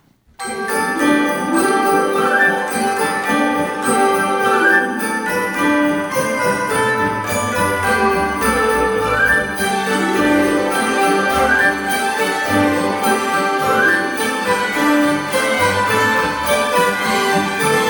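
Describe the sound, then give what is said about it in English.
Sleigh bells jingle steadily through a full, loud orchestral passage of film music, their bright shimmer running continuously beneath sweeping strings and brass with no voices present. “So none of these are really to do with Christmas, but the sleigh bells are there really as like the kind of, I guess, orchestrational thread.”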